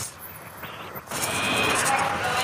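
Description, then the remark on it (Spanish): An automatic supermarket door slides open, and the muffled quiet gives way to a louder, hissy wash of store ambience with faint background voices and bustle. “Eso que habéis oído es la puerta que se abre sola.”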